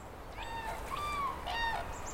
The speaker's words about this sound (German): Ganz weit hinten ruft ein Kranich.